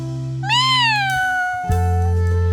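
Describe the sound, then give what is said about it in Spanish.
A single drawn-out cat meow, rising then slowly falling in pitch, clear over a steady low hum, with no talking. “Échale unos maullidos, Sakuchan.”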